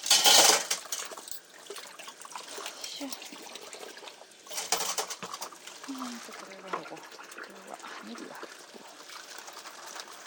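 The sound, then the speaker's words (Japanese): Someone cleaning out a refrigerator: loud scraping and rustling bursts at the start and midway, with light clinks of dishes and a soft trickle of water. A voice murmurs briefly in between. “いや何をしてるかって言ったらねこれねもういいですか答え言っても 冷蔵庫にねちょっと掃除をしてたんです”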